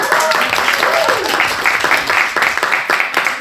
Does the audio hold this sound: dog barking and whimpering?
no